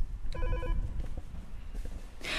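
A telephone rings once in a short, bright electronic burst, followed by low room rumble, a few faint knocks and a rush of hiss at the very end.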